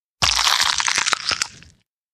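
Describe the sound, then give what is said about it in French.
A loud crunchy bite into the belly of a still-living piranha, lasting about a second and a half, dense crackling broken by several sharp snaps, heard alone with no voices. “La renarde brune s'en saisit et croqua à pleines dents dans le ventre du poisson encore vivant.”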